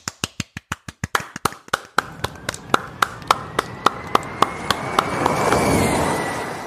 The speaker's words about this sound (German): ich bitte um einen kleinen Applaus für Nick de Vries und Mercedes.